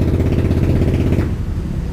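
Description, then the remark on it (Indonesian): A motorcycle engine idles while being warmed up, with a steady, throbbing low rumble that holds for about two seconds, easing slightly toward the end. No one speaks over it. “terus bro, kenapa kalau orang lagi manasin motor bro”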